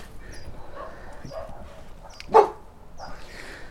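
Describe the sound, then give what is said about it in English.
A dog, interested in what is happening out back, gives one sharp, loud bark midway through, with softer whiny yelps and rustling outdoor background noise around it. “and the dog, dog obviously is uh, he's he's interested in what's happening back here.”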